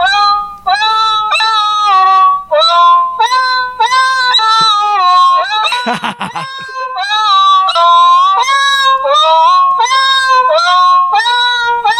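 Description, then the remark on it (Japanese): A quick, bouncy tune, Neko Funjatta, played entirely with synthetic meowing notes, each pitch a short cat-like mew with sliding harmonics, loud and continuous, with a brief noisy burst midway. “ちょっと猫の声で、なんか曲を弾いてみてくれ。”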